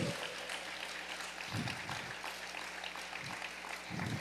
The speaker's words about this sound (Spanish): Dale un aplauso al Señor, por favor, porque Él se lo merece.